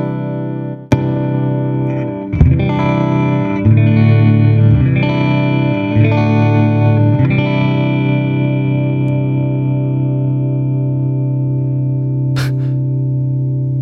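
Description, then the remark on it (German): An electric guitar played through a compressor pedal in a guitarist-style setting: a sharp opening strike, then sustained chords with evenly squeezed, steady loudness that ring out smoothly, ending with a brief bright click. “kommt der Kompressor.”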